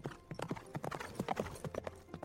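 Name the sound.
horse hooves galloping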